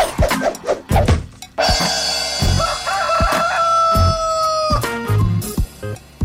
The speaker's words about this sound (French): On se souviendra que j'ai enregistré ce jingle-là à Saint-Basile euh, avec les poules.